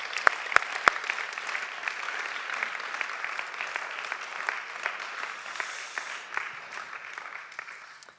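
An audience applauds steadily, a dense crackle of many hands clapping with a few sharp louder claps at the start, fading slightly toward the end.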